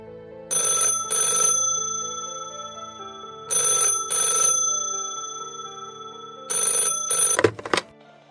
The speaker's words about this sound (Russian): Около пяти вечера на кухне зазвонил телефон